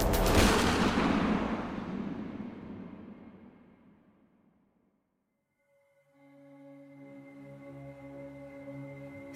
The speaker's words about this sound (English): Shortly thereafter, uh, there's a sound of a gunshot from inside the dozer, and that was when he killed himself.